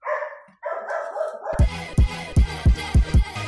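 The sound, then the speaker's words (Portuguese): A dog whines briefly, then breaks into a steady run of about six loud barks spaced evenly, each one sharp and punchy. “Olha o cachorro desgraçado.”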